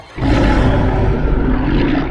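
lion roaring

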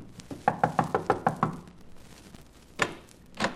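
knocking on a door

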